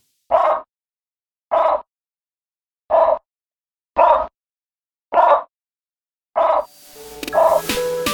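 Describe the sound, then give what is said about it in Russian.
A tree frog in Costa Rica croaks six times, each short call evenly spaced about a second apart with silence between, clear, before a rushing wash of noise rises at the end. “Послушайте вы со мной его прощальное кваканье.”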